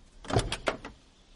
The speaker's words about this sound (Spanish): Un coche aparca junto al monovolumen.